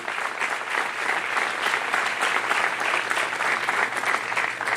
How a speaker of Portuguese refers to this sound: Glória a Deus, amado. Aplauda ele bem forte, porque ele é Deus de justiça.